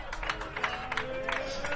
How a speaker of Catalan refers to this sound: i aquest és el capità, l'ovació.